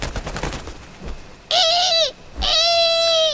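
barn owl call

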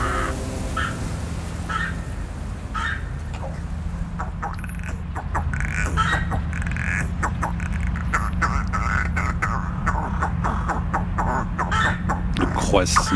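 crow or raven cawing

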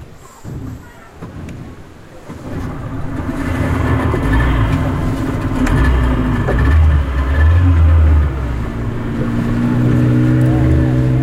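fishing boat engine running

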